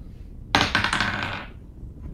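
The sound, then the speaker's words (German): A twenty-sided die clatters across a hard tabletop, a sharp first impact followed by a quick run of rattling bounces that fade out within about a second, landing on a 7. Fairly loud, with no talking. “Ein würfel mal mit W20.”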